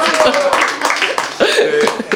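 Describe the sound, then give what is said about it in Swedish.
A short burst of applause sound effect, dense and steady, with crowd voices and cheers mixed in throughout, fairly loud. “det är inget att skryta om kanske, men det var faktiskt, det var, jag har en applåd”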